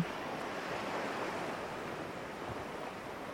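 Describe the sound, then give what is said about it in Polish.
Ocean waves wash and surge steadily in a continuous, rushing roar, even in loudness, with no voices present. “Zwróć uwagę na to, jaki kolor mają fale, które Cię opływają.”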